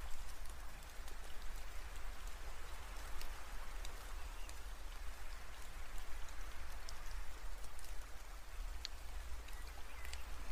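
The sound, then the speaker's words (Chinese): Steady rain falls without a break, a soft even hiss dotted with sharp scattered drop ticks. The level holds constant throughout, and no one speaks. “嗯，不过又开始下雨的话。也是没有办法呢”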